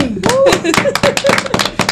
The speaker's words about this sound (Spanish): Fuerte el aplauso.